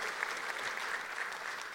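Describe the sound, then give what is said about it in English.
A church audience applauding together, a steady wash of many hands clapping at once with no clear individual beats, continuous and fairly even in loudness throughout. “We should hand clap for that. Why don't we all clap?”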